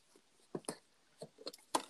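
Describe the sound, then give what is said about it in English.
Someone unboxing a newly bought, packaged Nintendo Switch controller styled like an NES controller: a handful of short, crisp crackles and rustles of plastic and cardboard, irregular, with no one talking. “Yeah, oh, so well, I haven't opened it yet, so I'm unboxing it.”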